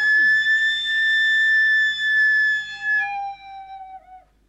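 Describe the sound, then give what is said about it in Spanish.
A loud, shrill steam whistle, like an organ pipe, on a sweet potato vendor's cart blows steadily for about three seconds as pressurized steam from the cart's boiler escapes, then slides lower and fades out as the steam tapers off. “La caldera produce vapor para cocinar los camotes, y entonces el camotero deja escapar parte del vapor a presión por un silbato que es como un tubo de órgano.”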